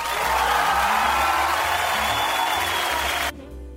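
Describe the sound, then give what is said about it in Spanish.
A short burst of dense applause welcoming a guest, steady and fairly loud for about three seconds, then cutting off abruptly into quiet. No one speaks over it. “Eh, por aquí mm, llega nuestro invitado de lujo, nuestro invitado especial, lo recibimos, no, no lo vamos a recibir con unos aplausos porque el tipo es un pajero, vamos a darle un par de aplausos nada más.”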